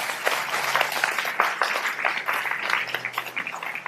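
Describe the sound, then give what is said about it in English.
An audience at a church service claps together as a clap of praise to God, a steady, dense burst of applause, many hands overlapping into a bright, continuous patter that holds at an even loudness throughout. “Why don't you give God a clap of praise right now?”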